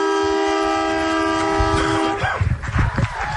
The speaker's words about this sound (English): Final siren at Dairy Farmers Park.